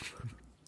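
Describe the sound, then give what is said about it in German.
A newly arrived pet dog shuffles and clatters about in the background, with a few soft, brief knocks and a faint whimper-like tone, all quiet. “Wenn man übrigens so Geklapper im Hintergrund hört,”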